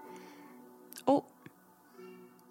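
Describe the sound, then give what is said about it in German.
A single short, loud fussing cry cuts in briefly from babies who have just woken up, with quiet talking going on in the background before and after. “Oh. Die Babys sind aufgewacht.”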